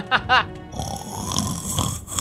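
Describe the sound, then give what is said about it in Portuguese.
A person imitates the loud snoring of a sleeping dwarf druid in a fantasy role-play game: two quick, rattling snorts up front, then a long, rough, breathy rumble that carries on to the end. “Erevan, você, como é um elfo, o seu transe dura quatro horas e você acorda ainda de madrugada para olhar para o lado e enxergar o terrão ainda dormindo e apesar de ser um druida como você, ele ronca como Clank.”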